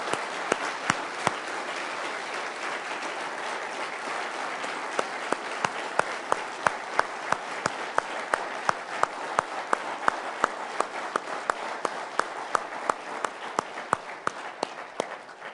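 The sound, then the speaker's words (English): A church audience applauds standing veterans, a dense, sustained wash of many hands clapping, with sharper individual claps popping out rhythmically toward the end. No one speaks over it. “if you're willing and if you'll allow us to do so, would you stand so that we can cheer for you and thank you uh, the New Life Way and celebrate you today?”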